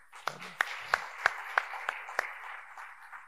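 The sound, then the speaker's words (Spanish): A church audience applauds at the end of a sermon: a steady wash of clapping with a few sharp, evenly spaced claps standing out in a regular rhythm, moderately loud and tapering slightly toward the end. “Dele un fuerte aplauso.”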